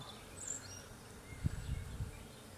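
Faint, low buzzing of bees drifting in a quiet garden, with a couple of soft bird chirps early on and no voices.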